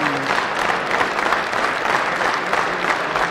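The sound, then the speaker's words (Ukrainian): A concert audience keeps up sustained, dense applause as the performers leave the stage and the host tries to speak, a steady roar of many hands clapping with no break or letup for the whole stretch. “Володя знову виходить на сцену, тисне руку Силантіву, але оплески далі не припиняються.”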